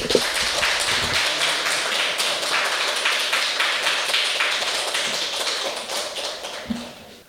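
Sustained applause from an audience at a church worship service, welcoming a guest speaker: a dense steady patter of many hands clapping together for several seconds before tapering off near the end, with no voices over it.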